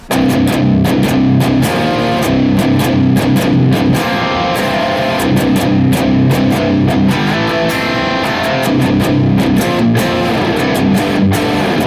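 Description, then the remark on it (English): A heavily distorted electric guitar, played through the Neural DSP Archetype Nolly plugin in stereo with a Boss IR-200 and a drone green KT88 impulse response, plays a thick, driving riff with punchy, rhythmic chugs. It sounds loud, and no voices are heard. “Boss IR 200 and the Neural DSP archetype Nolly together.”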